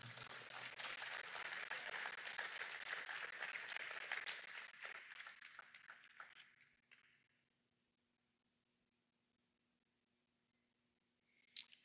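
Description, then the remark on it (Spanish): A crowd claps steadily for several seconds in applause for the Lord, a dense wash that gradually thins and fades out, followed by near silence and one brief sharp sound near the end. “Dale un aplauso al Señor.”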